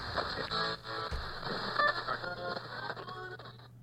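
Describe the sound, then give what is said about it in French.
Steady radio static crackles and hisses for a few seconds, with faint shifting tones and warbles running through the noise as if a dial were being turned. No one speaks. “Oh, toujours en train de grésiller.”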